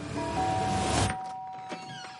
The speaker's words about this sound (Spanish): En casa de Raquel, el timbre suena.